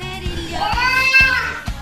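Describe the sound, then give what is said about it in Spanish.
High children's voices shout and yell together in a rising cry, loud, over a steady thumping beat that pulses about twice a second, in a television song. “Ahí está, gritan los nenes, claro que sí, claro con esto.”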